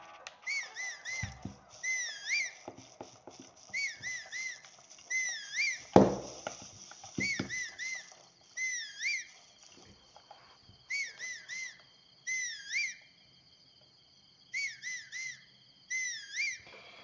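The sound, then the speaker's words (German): Someone whistles to call others over, in short, warbling bursts that rise and fall, repeated about eight times with brief pauses between, with a dull thump partway through. “Sorry, ich muss jetzt ein bisschen pfeifen, weil sonst kommen die nie hierher.”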